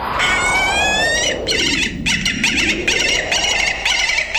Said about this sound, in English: Our bird is the largest falcon in the world, Falco rusticolus, the gyrfalcon.